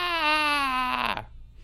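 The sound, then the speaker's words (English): A baby in a movie scene lets out one long, intense wail, loud and steady in pitch, before it breaks and drops off at the end into a faint trailing whimper. “That was kind of a scary baby cry.”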